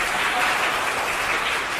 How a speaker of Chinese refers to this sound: 有没有掌声鼓励一下？